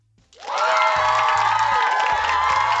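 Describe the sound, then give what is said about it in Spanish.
A loud burst of crowd cheering and applause swells in after a brief quiet moment, then holds steady and dense with whoops and shouts layered over continuous clapping. “Un aplauso, un aplauso.”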